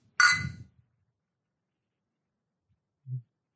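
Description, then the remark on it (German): A single bright clink of glasses touching during a toast, fairly loud, ringing briefly before fading into silence, followed a few seconds later by a soft low thump. “Während wir anstoßen ähm, und ja.”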